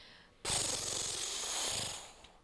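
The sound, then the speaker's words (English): A voice imitates a page turning with a loud, breathy rustling hiss that starts abruptly and lasts about two seconds before trailing off, with no talking alongside it. “Let's give it an honorary page turn noise.”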